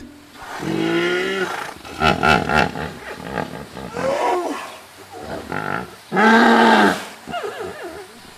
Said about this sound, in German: Etwas ganz Markantes bei den Flusspferden ist ja auch ihr Ruf. Wer schon mal zur richtigen Zeit bei der Afrika-Anlage gestanden ist, hat das sicher auch schon gehört.